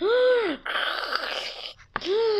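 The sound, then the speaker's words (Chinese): A voice imitates the snoring of a very tired, sleepy dad hiding under a quilt: a drawn-out groaning tone, then a long raspy breath, and after a brief pause and a small click, another groaning snore begins. “原来爸爸躲在棉被里面打呼噜。”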